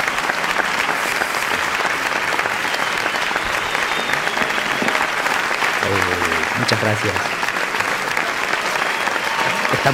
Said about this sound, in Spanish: El aplauso para el artista es, eh, es lo máximo, ¿no? Eh, al final es, esa la recompensa ¿no? que tiene el artista.